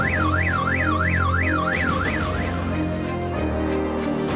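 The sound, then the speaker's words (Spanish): A car alarm blares, first a rapid rising-and-falling electronic warble, then switching to a harsher pulsing pattern, loud and continuous with steady background hum and no voices. “También puede recoger una roca y tirarla al coche más cercano para activar la alarma.”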